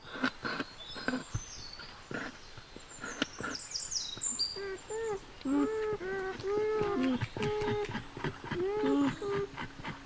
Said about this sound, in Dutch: Ook bevers maken sterke geluiden trouwens. Ik ben er zeker van dat hier in het bos een familie bevers leeft.